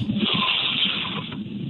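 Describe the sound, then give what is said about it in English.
A long, steady breath drawn in through the nose, a continuous airy hiss lasting under two seconds, with no talking. “And so, you know, just in a big inhale into the nose, and it sounds like this”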